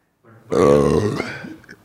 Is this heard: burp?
yes